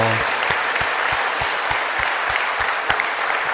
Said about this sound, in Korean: 다시 한번 하나님께 감사와 존귀와 영광의 박수 올려드리겠습니다.